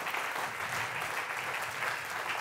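Sustained applause from an audience, given for the people watching on television across Latin America and the United States, a dense, steady wash of many hands clapping at once, fairly loud and continuous throughout with no voices standing out.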